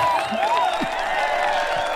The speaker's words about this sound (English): oh, there's a big crowd. I hope they're still cheering at the end.